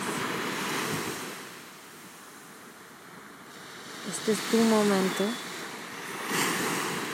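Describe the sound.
Ocean waves wash steadily in a broad, hissing rush, swelling and easing throughout, while a voice speaks briefly over the surf partway through.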